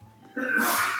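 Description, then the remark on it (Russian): A single sharp human sneeze, loud, with a short intake of breath before a bright, hissing burst that holds for a moment and then breaks off. “Вот он, будь здоров.”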